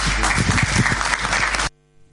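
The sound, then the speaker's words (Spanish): Applause from a meeting crowd, the first applause after more than three hours of the meeting, a dense burst of many hands clapping at once, loud and steady for under two seconds before cutting off abruptly into near silence. “y ahí levantaba unos aplausos que fueron los primeros aplausos después de más de tres horas de, de junta”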